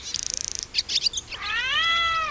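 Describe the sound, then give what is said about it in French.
A cat makes a rapid, high-pitched chattering burst at a swallow, then a few short squeaks, followed by a drawn-out rising and falling meow, fairly loud with no one talking. “laisse cette pauvre hirondelle tranquille elle revient d'un voyage de plusieurs milliers de kilomètres.”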